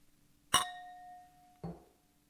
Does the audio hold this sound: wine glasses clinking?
yes